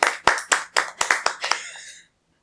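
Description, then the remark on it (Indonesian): Sharp hand claps in a quick uneven burst of about seven or eight, given in tribute to the Gejayan Memanggil protest movement, loud at first and tapering off before a short silence, with no talking. “Ayo kita tepuk tangan sekali lagi.”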